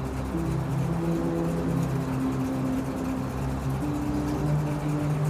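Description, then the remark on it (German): A limousine engine hums low and steadily, idling quietly and continuously in front of a house door, with faint tonal drones shifting slightly over a constant rumble and no voices. “Leise surrend steht er vor deiner Haustür.”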